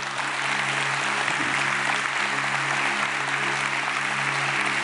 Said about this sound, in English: Church family, let's give a big round of applause to these people who stood up.